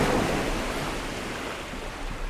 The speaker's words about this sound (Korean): 하, 이렇게 바닷가에 앉아서 밀려오고 밀려가는 파도를 보는 것만도 참 좋아. 제주가 좋아, 그래서.